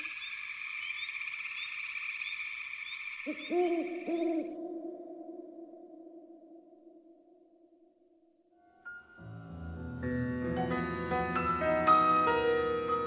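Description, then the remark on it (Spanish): A couple of low, resonant owl hoots fade out slowly after a high, steady trilling tone, and then layered instrumental music swells in. No one speaks. “El búho de Juan José Arreola.”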